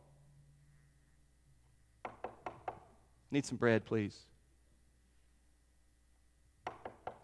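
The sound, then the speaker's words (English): Sharp raps on a wooden door: four quick knocks, a short spoken line, then another burst of three knocks, crisp and fairly loud against a quiet background. “and you just keep knocking, guess what's going to happen?”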